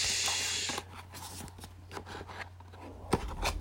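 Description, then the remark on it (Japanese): Rustling and scraping as the packaging of a new computer mouse is opened, starting with a loud hiss of tearing or sliding material, then scattered soft crinkles, taps and a sharp click near the end. “新しいマウスを開封します”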